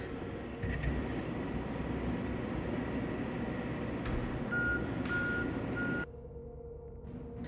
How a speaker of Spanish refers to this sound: Máquinas barredoras limpiaron calles y avenidas.